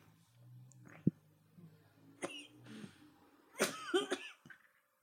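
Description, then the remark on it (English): A person has a coughing fit: a string of harsh, breathy coughs at uneven intervals, bunching into a rapid, strained cluster near the end, fairly quiet. “Don't don't try to talk while you're coughing.”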